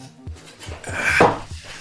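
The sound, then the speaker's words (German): A chair squeaks and creaks as it is rocked, with a steady series of soft low knocks and a louder, rasping creak swelling through the middle, with no talking. “Oh ja, neue ja, das Stühle, brauchen wir eigentlich, weil, weil die hört sich nämlich so an hier.”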